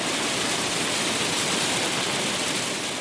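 A steady, dense roar of hail pelting down on a hut in Fiordland, a short hailstorm lasting a couple of minutes, a loud continuous hiss of countless tiny impacts that holds evenly for the whole stretch, with no voices.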